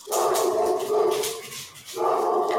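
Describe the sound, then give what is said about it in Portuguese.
A dog, Paçoca, vocalizes fairly loudly in the background in two drawn-out stretches of barking and whining, with a brief dip between them and no one talking. “o Paçoca também não gostou do filme, não, gente. Como vocês podem ouvir aí ao fundo, ele tá falando que o tio Shyamalan fez coisa errada.”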